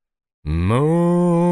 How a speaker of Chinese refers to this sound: 不知为什么，一旁老黄牛突然叫个不停，摇头晃尾的向牛郎表达着不满。